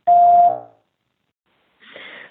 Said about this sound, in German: Wir freuen uns über alles, was ihr uns nach dem Piepton hinterlasst.